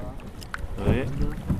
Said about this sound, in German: Der Wind weht ihm jetzt ganz zart ins Gesicht. Er bläht unser Segel leicht auf und wir gleiten sanft übers Wasser.